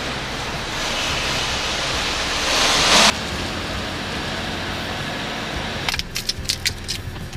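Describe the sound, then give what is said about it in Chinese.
Rental car keys jangle in a short burst of bright, metallic clinks near the end, following several seconds of steady hissing noise. Nobody speaks. “好，然后你就把钥匙呢要收好。”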